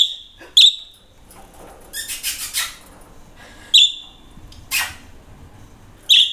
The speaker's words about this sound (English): So this white one that is in house arrest for the moment. It's called Coco because she's a troublemaker um, they're budgies, they're parakeets. And these two baby ones are called Comet and Calypso. So they're new to the flock